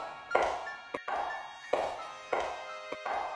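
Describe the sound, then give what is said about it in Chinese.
Slow, evenly paced footsteps of a woman coming down the stairs from the floor above, around five or six soft, muffled thuds with short sharp taps between them, fairly quiet and with no voices. “脚步声从楼上响起，是那个吊死的女人，她在下楼。”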